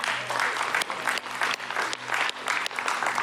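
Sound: audience applauding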